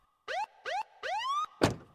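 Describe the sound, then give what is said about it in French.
A state troopers' police SUV pulls up and stops beside a road near Fairbanks: its siren gives three short rising whoops, the last one longer, then a heavy thunk like a car door closing. Fairly loud, with no voices. “Et là, une voiture de flics s'arrête.”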